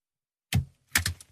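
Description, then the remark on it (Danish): A boy presses a stamp onto paper: two quick, dull thunks with a short gap between them and a faint rattle trailing the second. “Jeg synes, Prøv at se, hvor lidt lyd du kan lave med det stempel”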